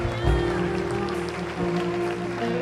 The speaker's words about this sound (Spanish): Dele un aplauso fuerte al Señor.